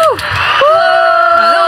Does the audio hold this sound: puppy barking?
no